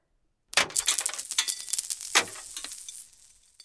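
A man pours a stream of many coins into an offering box, producing a dense, continuous metallic jingling and clattering with a few louder clinks, fading gradually as the last coins settle.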